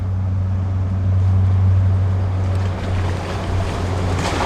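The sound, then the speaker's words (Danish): A large motorboat's engine drones steadily over lapping water and wind, its low hum holding for a while before slowly thinning out as the boat passes and moves off. “Lyden hænger lidt ved, efter båden er forsvundet.”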